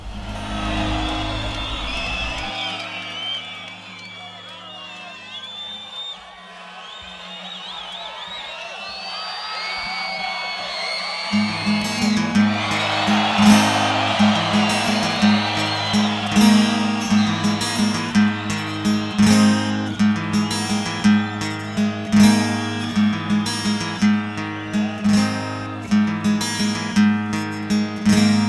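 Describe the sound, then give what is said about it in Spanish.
A live band performance with crowd noise, cheering and whoops rising over an opening stretch before full instruments and a steady bass groove kick in and carry on loudly. “Escuchemos esta otra rola en vivo de ese mismo disco.”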